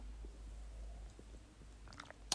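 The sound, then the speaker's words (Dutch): Someone takes a quick sip of a drink: soft wet mouth and swallowing noises near the end, then a small sharp click, over a low steady hum with no talking. “En ik moest toen denken, dan moet ik even een slok nemen.”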